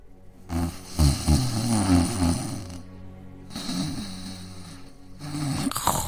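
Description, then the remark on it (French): Loud snoring of a wolf taking a nap: three long, rattling snores in a slow rhythm, each a deep throaty rumble with a breathy rasp, separated by brief quiet pauses. “Le loup ronflait si fort qu'un chasseur qui passait par là l'entendit.”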